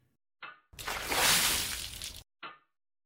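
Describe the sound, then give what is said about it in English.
Holy water sloshes and splashes in one loud, rushing burst about a second and a half long, with a short splash just before and another just after. No one speaks. “Is that holy water?”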